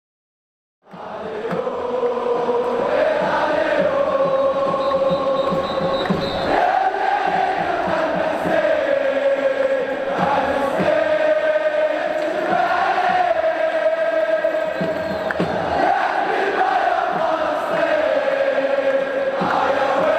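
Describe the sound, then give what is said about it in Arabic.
Tens of thousands of supporters of Moroccan club Raja Casablanca chant in unison from the stands of Mohammed V Stadium in Casablanca, a loud, sustained sung melody with a steady rhythm and roaring voices, continuing without pause for the whole stretch. “في هذه الهتافات صدحت أصوات عشرات الآلاف من أنصار نادي الرجاء البيضاوي المغربي في مدرجات ملعب محمد الخامس بالدار البيضاء”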